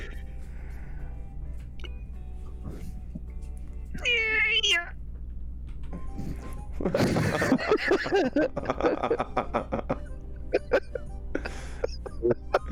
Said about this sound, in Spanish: Qué bostezo más raro, tío. Es como una mezcla entre bostezo y estiramiento, ¿sabes?